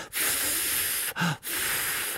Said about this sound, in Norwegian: Da måtte du f.eks. blåse på med den varmeste pusten du greide å oppdrive. Bare ser oh. du på, på spissen på, på, på pennen, og så bare